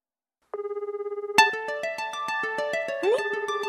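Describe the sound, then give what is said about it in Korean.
A phone rings with an incoming call from an unfamiliar number on the show 사랑을 연결합니다, first a steady pulsing electronic tone, then a bright melodic ringtone, its repeating notes chiming rhythmically and fairly loud, with no talking over it. “처음 보는 분인데 스팸 전화겠지만.”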